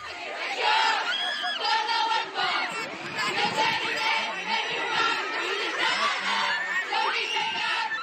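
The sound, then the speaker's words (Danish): A huge crowd of fans of the pop band a band screaming shrilly, a dense, unbroken wall of high excited voices with individual shrieks rising out of it, loud and sustained from start to finish. “Det er … fans.”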